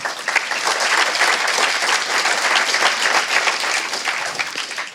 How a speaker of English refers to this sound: So before we kind of get going, can we give those guys a round of applause for having us back?